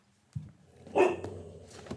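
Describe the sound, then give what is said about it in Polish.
A dog behind the speaker lets out a short, sharp bark, preceded by a soft thump and trailing into quieter rustling. The bark stands alone, with no talking. “Cicho, pieszku.”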